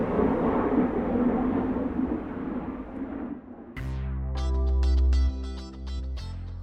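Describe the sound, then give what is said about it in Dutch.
A loud airplane roars over a garden as a broad, rushing drone for about three and a half seconds, then a bright musical passage with sustained tones abruptly takes over. “Nou en met het oorverdovende vliegtuiglawaai boven mijn tuin nemen we afscheid van deze aflevering.”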